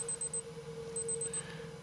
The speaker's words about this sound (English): His Casio watch beeped to let him know he was 15 minutes early.